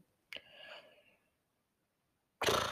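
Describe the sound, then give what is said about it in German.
A single sharp beatbox sucker punch, made by sucking inward, snaps and trails off in a short breathy ring, then silence before a loud rush of breath or noise at the end. “Dann ja, gibt es noch den Sucker Punch.”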